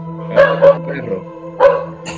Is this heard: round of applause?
no